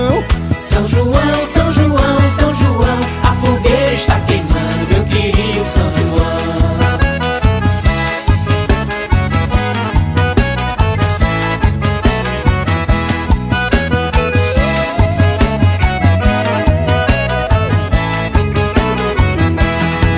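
A lively Brazilian festa junina song plays at full, steady volume for the whole stretch, with a bouncy dance rhythm and layered instruments and no talking over it.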